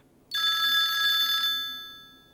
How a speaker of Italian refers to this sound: … risponde al telefono.